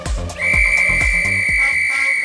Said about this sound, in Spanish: Cuando sonó el silbato que daba paso a la gran final, la pelea comenzó.